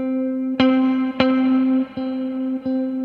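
An electric guitar sustains a single mid-pitched, harmonically rich note with left-hand vibrato, re-picked four times with sharp attacks, steady and fairly loud, with no voices.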